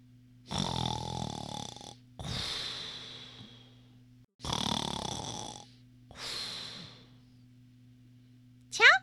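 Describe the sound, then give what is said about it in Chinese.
A voice imitates a hippo's heavy snoring as it sleeps lying on a bridge: four long, rasping breaths alternate in and out, each about a second and a half, over a steady low hum, ending with a brief high squeak. “可是河马只管睡他的觉，照旧打他的呼噜。”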